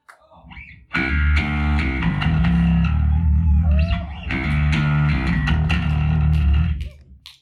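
A heavy, distorted electric guitar riff kicks in loudly with chugging low notes and bright harmonic overtones, pausing briefly midway before crashing back in, then cutting off.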